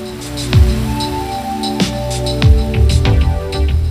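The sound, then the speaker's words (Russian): Steady rain patter with several deep, rumbling booms of thunder at intervals, set against a sustained, droning musical backdrop. No voices. “включаем грозу.”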